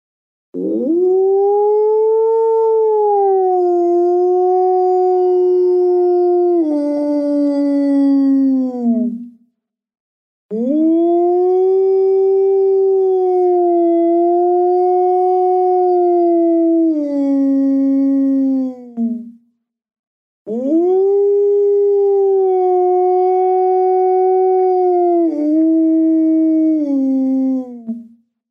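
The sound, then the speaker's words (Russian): A human voice imitates a wolf howling, loud, into the membrane of a frame drum, in three long drawn-out howls of about nine seconds each. Short pauses separate them, and each one sags in pitch at the end. “И становится по кругу и начинает выть волком именно вот в саму мембрану бубна.”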